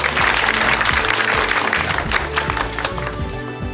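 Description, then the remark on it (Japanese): Sustained audience applause fills the whole stretch, dense and steady with many hands clapping at once, fairly loud, while soft background music plays underneath, sending off the president of Data Application at the end of the company's IR seminar. “ありがとうございました改めて大きな拍手でお送りください”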